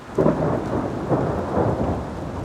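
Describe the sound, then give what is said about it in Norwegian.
Heavy rain pours steadily while deep thunder rumbles and rolls through, swelling in a few low surges across the whole stretch, loud with no voices. “Og ekstremregn er vi jo ikke så veldig glad i.”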